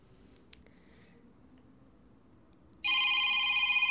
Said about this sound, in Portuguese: Ó. Meu telefone tá tocando. Mas a essa hora. Quem pode ser, gente? Hum, desconhecido. Não vou atender.